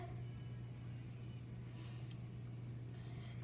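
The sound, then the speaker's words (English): A steady, low engine drone holds at an even pitch and volume throughout, like race cars running at speed as the Trump Cup race gets underway, with a faint hiss on top and no voices. “I'm gonna step on the gas.”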